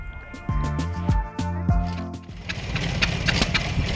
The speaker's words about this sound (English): and this is the sound of the old-fashioned machinery that makes Beekman's ice cream. This is the same way that they made ice cream like 90 years ago.